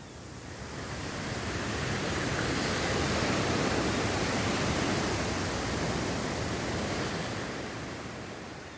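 A steady, broad wash of surf rises gradually, holds, then eases off as ocean waves roll onto a shore, with no voices.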